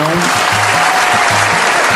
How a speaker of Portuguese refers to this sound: Aliás, eu tenho que dar os parabéns. Essa salva de palmas aí vai para o governo do Maranhão.